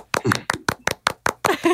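A quick run of about eight sharp hand claps at a fairly steady pace, given to welcome a guest, with a voice briefly sounding over the first and last claps.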